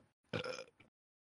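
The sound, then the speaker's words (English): A single loud, close burp rumbles out for about half a second, trailing off with a short throaty tail, with no talking around it. “So, um, Jesus Christ, I can't stop burping.”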